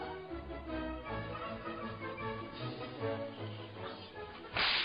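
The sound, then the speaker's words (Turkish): Sharp whip lashes strike as Sancho is whipped in a Don Quixote story about Dulcinea, against a steady tonal background, with one especially loud crack landing near the end. “Vurduğun her kırbaç güzel Dulcinea'yı bu büyüden kurtarıyor.”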